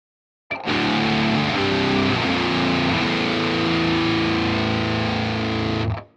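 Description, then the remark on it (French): A heavily distorted electric guitar plays a sequence of power chords from D that seem to step further downward in pitch, using chord inversions with the fifth doubled in the bass, loud and sustained for about five seconds with no voices, then cuts off abruptly. “On a l'impression que les accords suivants étaient comme plus graves, que je pouvais continuer de descendre.”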